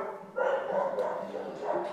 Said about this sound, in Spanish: Pinches perros, güey.